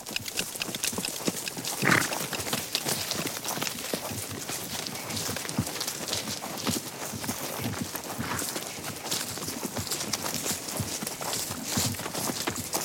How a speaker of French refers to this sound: Ce magnifique bruissement de l'herbe sous les sabots d'un cheval au trot, à rythmé et perçu comme l'exaltation d'une nature au vif, un galop qui m'a plongé dans, qui m'a plongé dans la nature